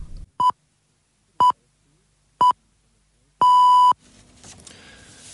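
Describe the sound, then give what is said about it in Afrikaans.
The 9 o'clock radio time signal on RSG (Radio Sonder Grense), from its first broadcast on 28 September 1996: three short, evenly spaced beeps one second apart, then a longer final tone on the same steady mid-high pitch, loud and clean, followed by faint background hiss. “Dit is RSG, Radio Sonder Grense, 9 uur tyd sein”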